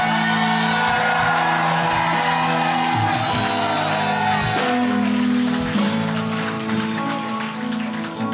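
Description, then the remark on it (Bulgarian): A church audience shouting and crying out together, loud and sustained, with overlapping voices echoing and occasional whoops rising above the roar. “Извикай, защото духовете излизат с вик!”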